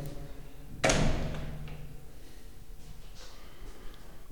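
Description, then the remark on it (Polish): A bathroom door shuts with a single solid thud about a second in, its sound ringing briefly in the echoing bathroom before fading into a quiet background hum. “I tutaj akustyka się zmieniła, drzwi zamknę.”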